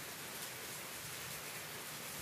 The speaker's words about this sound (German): Der Geruch von Regen auf dem Asphalt der kleinen Weltstadt.